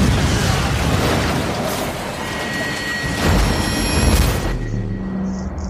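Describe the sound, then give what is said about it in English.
Several heavy sonic booms from a 2007 film roll out in quick succession, loud, each a deep rumbling blast that blends into a continuous roar before it cuts off abruptly. “It sounded like several sonic booms.”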